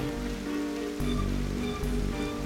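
Steady rain comes in through a window and patters on a surface, a dense continuous hiss with soft droplet taps, and no voices. A couple of slightly sharper splashes stand out briefly.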